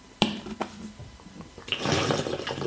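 A close-up drinking sound: a few sharp clicks and gulps from a water bottle, then a longer, louder stretch of sloshing, swallowing water with no one talking.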